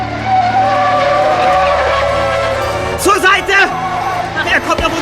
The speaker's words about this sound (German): Der, der hätte uns überfahren. Hat sich einer das Kennzeichen gemerkt? Unmöglich, die Scheinwerfer waren viel zu grell.